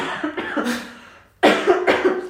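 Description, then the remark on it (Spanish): Two bursts of harsh coughing into the elbow, muffled: a rough opening fit, a short pause, then a sudden louder cough followed by a couple of quick rasping repeats. “Está, tosiendo al codo, así que estamos todos tranquilos en esta sala por ahora.”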